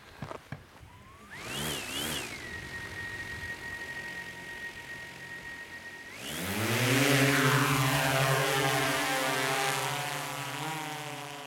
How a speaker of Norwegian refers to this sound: følger drona med falkeblikk der den svirrer over Fredheim